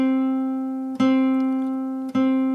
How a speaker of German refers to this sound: Ich habe jetzt gerade meine Gitarre in der Hand und spiele euch das mal schnell vor. Am Anfang drücke ich so fest, wie es geht.